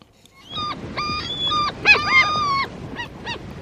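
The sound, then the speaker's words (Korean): Several seagulls cry out in a quick series of sharp, wailing calls, some overlapping, fairly loud against a soft background rumble, with two short yelps at the end. “갈매기 소리입니다.”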